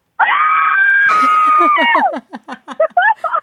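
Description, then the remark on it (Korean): A loud, sustained high-pitched scream rings out for about two seconds, then breaks into a quick run of excited, bursting yelps and laughter-like cries, from a happy fan who has been asked to scream. “어때요? 지금 기분 좋을 것 같은데 소리 질러!”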